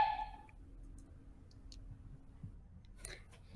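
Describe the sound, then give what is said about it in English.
A brief electronic beep, then a few soft, unevenly spaced keypad clicks as an administrative access code is tapped into a console by a door, ending in a quick cluster of presses. Quiet, with no voices. “I'll enter Camilla Varela's administrative access code. Inputs.”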